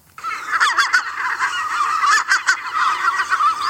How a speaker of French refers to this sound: Là, vous avez le chant, par exemple, du goéland.